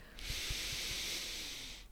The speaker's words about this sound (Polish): zawsze du du duży oddech biorę, wiesz, bo to...